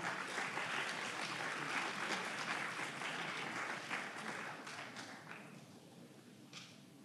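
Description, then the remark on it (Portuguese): A standing audience at an evening worship service applauds the Lord, a dense, steady wash of many hands clapping that holds strong for several seconds before gradually thinning and fading at the end. “Você pode aplaudir o Senhor nessa noite, amém?”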